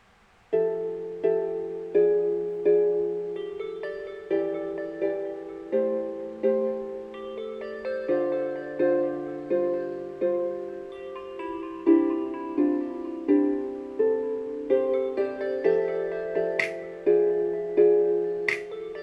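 A pop song played by the Maika voice assistant on request plays on its own, with a steady beat of bright, repeating melodic notes over a warm harmonic backing, holding an even, moderate loudness throughout.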